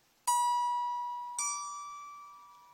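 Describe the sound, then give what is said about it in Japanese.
Two clear, bright plucked notes on a lyre, the second a little higher than the first, each ringing out and slowly fading with a shimmering sustain. No voices. “ライアーの音色”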